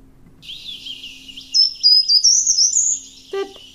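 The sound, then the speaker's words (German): A short-toed treecreeper sings a brief, high-pitched melodic phrase of thin notes that step downward, clear against a faint low hum, ending with one sharp chip. “DER GARTENBAUMLÄUFER”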